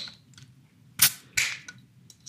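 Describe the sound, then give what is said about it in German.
A bottle opener prying a printed crown cap off a beer bottle: two sharp metallic clicks close together, the second with a brief fizzy hiss, plus a few faint clinks over a quiet, low hum. “Oh Gott, der öffnet ist nicht gut. Aber ein sehr schöner Kronkorken.”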